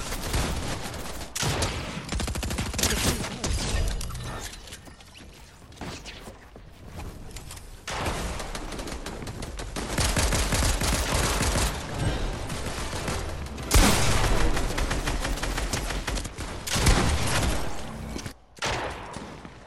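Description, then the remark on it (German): Dense, rapid bursts of automatic gunfire from small minion characters spraying shots in a video game, rattling almost continuously for twenty seconds, swelling louder in several stretches and briefly dropping away near the end. “Es nervt mich diese kleinen Minions, die nichts können außer rumsprayen.”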